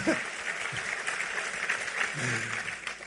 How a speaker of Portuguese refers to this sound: Gente demais, pode aplaudir o Senhor. Vocês vão ficar cansados de aplaudir o Senhor, né?